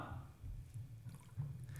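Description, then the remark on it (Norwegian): Soft wet sounds of water dripping and squishing from a soaked washcloth as feet are washed, fairly quiet, with a low steady rumble underneath and no talking. “Så tok Jesus vann på kappen sin, sikkert på litt av kappen.”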